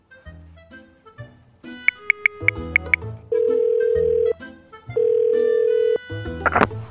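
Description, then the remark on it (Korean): A series of short dialing beeps, then two long steady ringback tones with a pause between them, heard over a phone line with faint background noise, as someone calls a number given for a Korean medicine clinic. “어 받았다.”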